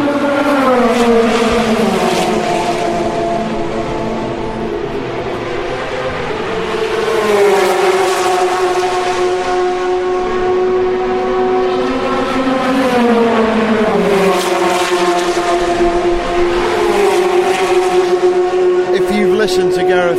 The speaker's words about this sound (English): probably recognise from the sound of the cars where we are at the moment. Listen to the reverb. We're on the start finish straight. Directly opposite the uh, Audi pit box, which is where we often are for the race, but not this year.